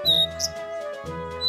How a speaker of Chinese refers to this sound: 哦，还有美妙清脆的鸟叫声呢。